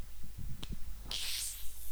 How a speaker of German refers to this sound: Darf ich jetzt meine Mate aufmachen? Ja, stimmt, du musst deine ja. Mate aufmachen.